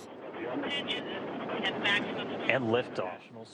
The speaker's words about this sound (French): Les 300 tonnes de la fusée Soyuz décollent vers les étoiles. Cinq moteurs d'une puissance de 20 millions de chevaux foncent dans le ciel.